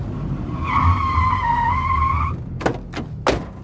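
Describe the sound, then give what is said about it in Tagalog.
A car's tires let out a long, high screech as it skids to a halt on a dark road at night beside a forest of mango and acacia trees, over a low engine rumble, followed by three sharp thuds like doors slamming. “Basta stop this car right now.”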